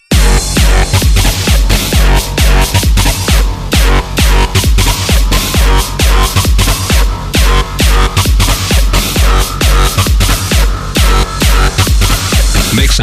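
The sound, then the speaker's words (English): Loud, dense electronic music pounds along with a heavy, distorted bass drop and a steady driving beat, filling the whole stretch without pause and with no voices. “Time for another fat ass drop.”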